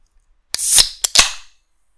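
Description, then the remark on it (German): A sharp pop followed by a hissing fizz, then two more quick cracks and a trailing hiss as a cold drink container opens by itself, with no talking. “Easy, mein Kaltgetränk hat sich geöffnet von selbst.”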